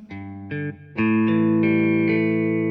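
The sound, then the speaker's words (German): A distorted electric guitar struck hard, several loud, gritty chords one after another, the last ringing out with a thick, buzzing sustain. No one speaks. “Ja, aber wieder so eine Verzerrte.”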